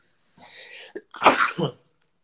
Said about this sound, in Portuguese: Desculpa. Saúde.